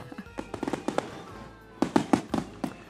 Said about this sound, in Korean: 그렇게 남자 둘이서 그 불꽃놀이 축제를 보러 갔습니다.